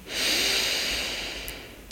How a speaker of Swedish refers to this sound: Och börja sedan andas in genom näsan. Och andas ut genom munnen. Pusta ut. Andas in genom näsan.